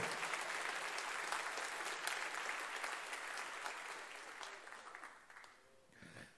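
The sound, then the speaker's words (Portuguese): An audience claps in praise of the name of the Lord, a dense, crackling wash of applause that holds strong for several seconds, then thins and fades toward the end. No one speaks over it. “Aplauda o nome do Senhor.”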